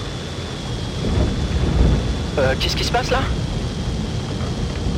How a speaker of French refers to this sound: C'est un courant d'air chaud, ça pompe. On ne doit pas être loin d'un orage.